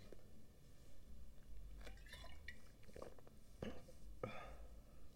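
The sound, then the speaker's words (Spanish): Someone takes a small sip of a shot of Smirnoff vodka, with a few quiet wet slurping and swallowing sounds spread over several seconds against a soft background hiss. “Un traguito.”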